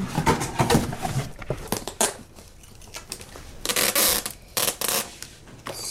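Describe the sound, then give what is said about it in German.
Handling of a cardboard box after something is put inside: flaps folded shut with crinkly scrapes and thumps, then several loud ripping bursts of packing tape being pulled and pressed down to seal it. No one speaks. “Also ich habe gehört, dass sie einen Karton nehmen, aufklappen, ähm, was reingetan haben, zu klappen und dann mit Klebeband das zugeklebt haben.”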